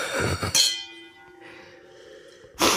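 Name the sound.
wine glasses clinking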